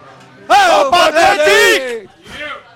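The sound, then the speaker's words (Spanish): A large crowd shouts the 'grito sagrado' chant together, loud rhythmic bursts of voices in a few drawn-out syllables, then a shorter, quieter shout trailing after. “Grito sagrado que nos escuchen, que hay mucha gente hoy en el Ejemplo ¿eh?”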